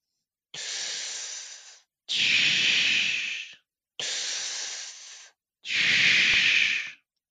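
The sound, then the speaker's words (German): A voice imitates bronchial breath sounds to demonstrate them: four harsh, hissing breaths in a steady in-and-out rhythm, each lasting over a second, fairly loud with short pauses between. “Und dagegen setze ich ein bronchiales Atemgeräusch.”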